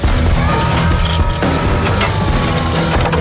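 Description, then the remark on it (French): Loud, dense mechanical clanking and whirring as metal armor locks into place, with rapid ratcheting clicks, servo whines and heavy metallic clunks layered over a continuous busy din, no speech. “Alors ce qu'on entend là, c'est le super-héros Iron Man. Vous avez reconnu ah David Il revêt pour la première fois son armure métallique.”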